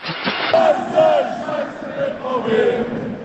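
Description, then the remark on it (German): A large crowd of football fans in the stadium at a VfB Stuttgart match chants together in a loud, rhythmic roar, many voices rising and falling in unison with repeated shouted phrases, recorded by a fan in the stadium. “ja, so, so war dann die Atmosphäre gestern Abend im Stadion.”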